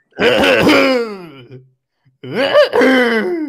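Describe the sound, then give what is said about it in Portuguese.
A person imitates a hoarse rooster crow twice, each a strained, raspy, drawn-out vocal call with falling pitch, separated by a short pause, loud. “Esse é o galo rouco.”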